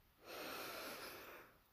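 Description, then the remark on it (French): A single deep, steady inhalation through the nose during a guided relaxation exercise, fairly quiet, with a breathy hiss swelling over about a second before fading away. “Et vous allez inspirer profondément pour vous dynamiser.”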